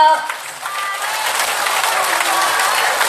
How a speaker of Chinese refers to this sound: 让我们以最热烈的掌声。